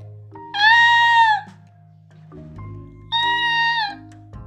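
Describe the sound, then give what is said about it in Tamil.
Two loud, drawn-out peacock calls, each a shrill, nasal wail lasting about a second and separated by a short pause, over a low steady background hum. “மயிலோட சத்தம் இப்படி தான் இருக்கும் பார்க்குறதுக்கு எவ்வளவு அழகாக இருந்தாலும் அதோட குரல் கேட்குறதுக்கு இனிமையாகவே இருக்காது”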